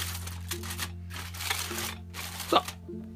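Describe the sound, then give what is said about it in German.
Bursts of crisp crinkling and crumpling as aluminium foil is scrunched and shaped over a glass on a plate, several rustling waves with brief pauses between, over a low steady hum. “Wenn das Papier noch nicht ausreichen sollte, könnt ihr euch auch gern noch ein zweites Stück Aluminiumpapier nehmen.”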